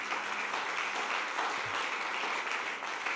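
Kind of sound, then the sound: crowd, audience applauding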